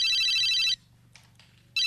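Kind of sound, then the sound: signal or alarm, mobile phone ringtone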